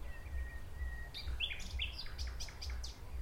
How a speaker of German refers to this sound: Zumal wir uns klar machen müssen, also wir haben es ja jetzt auch, die Nachtigall singt eine Strophe und dann macht sie vier Sekunden Pause etwa. Und dann singt sie die nächste Strophe.